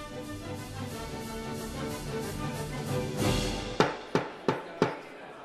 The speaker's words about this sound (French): le marteau frappa son socle en bois, marquant la décision du juge Courreau.